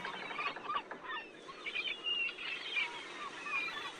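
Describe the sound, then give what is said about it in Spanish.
A flock of seagulls calls continuously, with many overlapping squawks and cries blending into a busy, somewhat distant chorus. No one speaks. “A lo lejos de esta tormenta puedes ver una parvada de gaviotas.”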